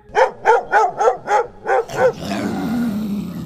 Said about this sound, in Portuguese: Até que ela ouviu um latido muito, mas muito alto, acompanhado de um rosnado.